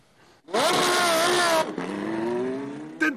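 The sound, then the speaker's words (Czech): A combustion-engine car revs hard, its loud engine note climbing in pitch, briefly dropping, then rising again in a second sustained rev with no voices. “zvuk si užívejte. Už za několik desítek let by mohl být vzácností.”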